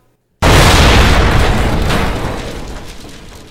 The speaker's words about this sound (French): Ah, vous avez entendu cette explosion Et en plus, je vois tout d'ici. Il y a des flammes qui montent jusqu'au ciel.